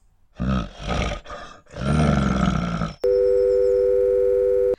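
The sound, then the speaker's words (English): A loud, rough roaring growl cuts off abruptly, replaced by a steady, unbroken phone dial tone after the other party hangs up, humming on at an even volume until the end. “Ah, he has hung up.”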